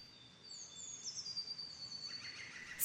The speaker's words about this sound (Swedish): Solen sken och fåglarna sjöng fantastiskt vackert där de satt i trädens grenar.